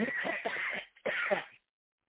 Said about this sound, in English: and that is the devil trying to prevent me from giving this message because I haven't coughed all day until now.